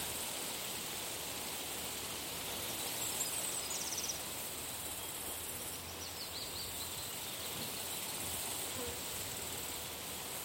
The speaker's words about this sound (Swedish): En humla surrar förbi. Det brummande ljudet från humlan. Trädens rasslande i vinden. Fåglarnas sång och doften från alla blommor gör dig avslappnad.